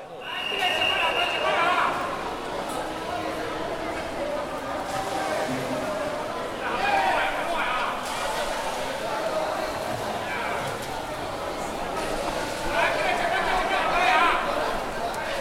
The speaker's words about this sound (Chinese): 你已经可以开始听到呃此起彼落许多在喊鱼的跳手们和各个摊位不同的声音了。